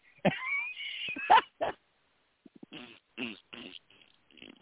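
A loud, buzzy fart sound effect stretches for about a second, followed by a few shorter sputtering blasts with brief gaps between them.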